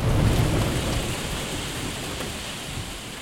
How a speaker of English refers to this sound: The cloud ripped wide open and rained sheets of hail to the ground below. The sky erupted with hail and thunder.